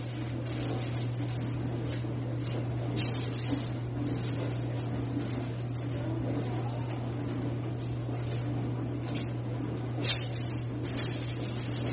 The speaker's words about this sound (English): So this is like the quick way to do this. That's why the dishwasher's going on.